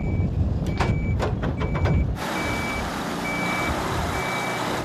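A heavy truck's engine rumbles loudly while a reversing alarm beeps steadily, about six evenly spaced beeps, with clanking and hissing bursts early on, as a lorry that failed a manoeuvre on a snowy bend of the main road towards Znojmo is hitched up to be towed back onto the road by its trailer.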